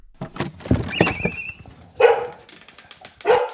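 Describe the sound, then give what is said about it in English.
Thurber, a border collie, barks in a quick run of short, sharp yips, then lets out two louder, fuller barks about a second apart, with no one talking. This is at his home, an old New Hampshire farmhouse, on a warm late-summer afternoon. “On a warm afternoon in late summer, Thurber, the border collie, welcomes me into his home.”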